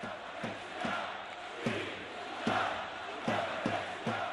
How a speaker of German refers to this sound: Independencia brüllen die Menschen dann Unabhängigkeit. Aus dem Stadion hat es der Schlachtruf auf die Straße geschafft.